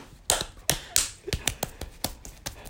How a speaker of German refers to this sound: Das war ein extra Klatscher.